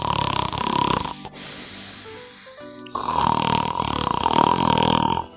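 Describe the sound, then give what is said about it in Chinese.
Someone imitates loud snoring with their voice: two long, rasping, buzzy snores, the second longer than the first, separated by a quieter breathy pause. “呼噜呼噜呼噜呼噜呼噜，呼噜呼噜呼噜呼噜呼噜。”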